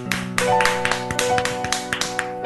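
A group of people clapping steadily for a couple of seconds, dense overlapping claps with a few sharper accents, while a steady tonal hum or music sits underneath. No one speaks.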